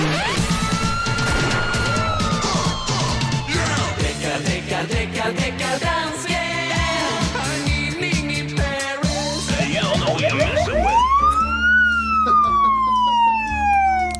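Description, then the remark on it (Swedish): A police car siren wails with sweeping rises and falls amid a busy, layered musical backdrop during a Mix Megapol radio segment, growing more prominent toward the end as the car approaches from a distance. “Det är så trist att han alltid missar när hans landskamrat Deckardansken kommer på besök för här ser jag hans lilla bil närma sig fjärran.”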